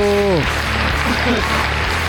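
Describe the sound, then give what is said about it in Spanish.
Audience applause: a steady wash of many hands clapping, fairly loud and even for about two seconds, opening with a brief falling vocal tone that fades as the clapping carries on. “Otros aplausos para el público.”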